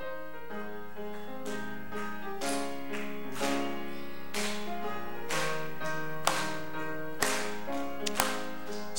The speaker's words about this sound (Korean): 찬송가 91장 슬픈 마음 있는 사람 우리 찬양하실 때 마음의 문을 여시고 힘차게 박수하시면서 우리 함께 찬양하겠습니다.